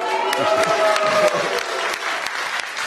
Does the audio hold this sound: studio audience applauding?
yes